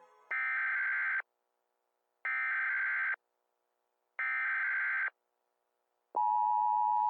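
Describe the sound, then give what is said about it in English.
An emergency broadcast test signal: three harsh, buzzy data bursts about a second long with even pauses between them, then a loud steady alert tone starts. No voices. “This is a test of the emergency podcasting system.”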